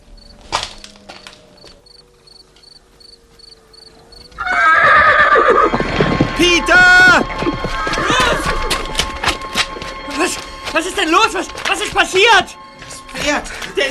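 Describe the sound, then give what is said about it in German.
Horses in a makeshift fenced enclosure on the other side of some rocks neigh loudly, several shrill, wavering whinnies overlapping after a quiet opening, with snorts and some hoof clopping mixed in. “ging noch einmal schnell hinüber zu den Pferden, die auf der anderen Seite der Felsen in einem provisorisch umzäunten Gehege standen.”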